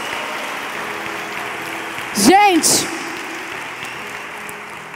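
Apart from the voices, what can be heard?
audience applause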